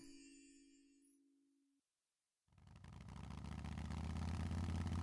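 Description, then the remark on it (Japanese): A soft tone fades into a moment of silence, then a motorcycle engine that has just been repaired at a bicycle shop fires up and keeps running with a steady, rumbling throb that grows slightly louder. “これで完璧だバイクのエンジンまで直してまう自転車屋なんてすごいびょん”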